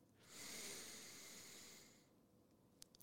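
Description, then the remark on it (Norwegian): A long, deep breath drawn in through the nose, a steady airy hiss lasting nearly two seconds, fairly loud, then quiet with a couple of faint clicks; a person demonstrating a slow breathing technique used while lying down to fall asleep. “Legg seg ned, og så tar du og du, fyller, du, du puster ikke herifra, du puster ifra pungen.”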